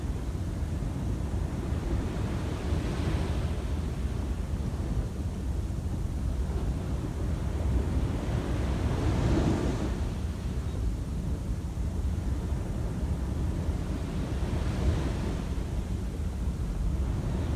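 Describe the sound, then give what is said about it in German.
Steady roar of ocean surf with waves swelling and washing in about every six seconds, a continuous wash of noise with no voices. “der Atem fließt, wie auch die Wellen ihren Lauf nehmen.”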